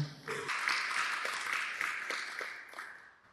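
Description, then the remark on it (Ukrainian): A burst of audience applause at a Ukrainian community hall (narodnyi dim), a dense wash of many hands clapping that holds steady for a few seconds before thinning out toward the end. “Я думаю, що ми повинні слова оплескам.”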